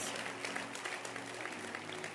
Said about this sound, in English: Clap your hands again.